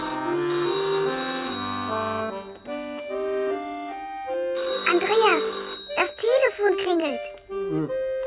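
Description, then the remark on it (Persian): A telephone rings at home, while someone listens to music and has just started eating, with steady, sustained electronic tones for several seconds, then voices, one sounding like a child, start talking over and after the ringing. “در خانه خودشه و به آهنگ موسیقی گوش میده و تازه شروع به خوردن غذا کرده که تلفن زنگ میزنه.”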